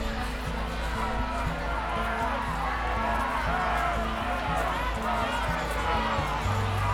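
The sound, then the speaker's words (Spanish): A large anti-corruption protest crowd in a Constitution square fills the air with steady, dense babble and shouting, punctuated by rhythmic low drum thumps, with whistles and vuvuzelas, continuous and loud throughout and gradually growing louder. “El sonido de tambores, silbatos y murmullos se volvió poco a poco más fuerte.”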